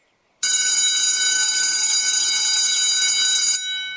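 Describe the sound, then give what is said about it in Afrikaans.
A loud electric school bell rings for break, continuously for about three seconds with a harsh, metallic clatter, then cuts off abruptly, leaving a faint hum behind. “Wanneer die klok lui vir pouse en al die skoolkinders buite speel en lag en gesels,”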